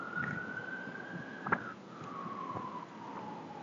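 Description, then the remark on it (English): A police car siren wails steadily in the background, its pitch slowly rising then gliding down, with a few faint knocks and low rumbling ambience underneath and no one speaking. “I love that I we're s- ending with the police sirens in the background.”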